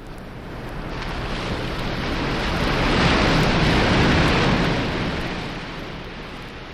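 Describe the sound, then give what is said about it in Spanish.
Sea waves wash up and break on the shore in a broad, steady roar that swells to a peak midway and then slowly recedes, with no voices present. “Vamos a contarlo a la orilla de la mar.”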